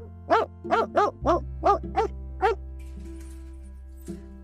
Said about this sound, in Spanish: Y debe ser cierto, porque en verano, cuando hay luna, se oyen los perros ladrándole a la mar.